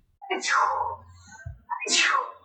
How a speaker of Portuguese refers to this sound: soltou um espirro no meio do cast e eu não poderia finalizar esse cast sem dizer à minha queridíssima amiga, saúde